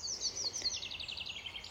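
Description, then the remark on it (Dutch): Rapid, high-pitched bird chirps trill continuously in quick repeated notes in the mountains in France, over a soft steady low rumble of a motorway in the background. “Met vogeltjes, maar op de achtergrond ook de snelweg.”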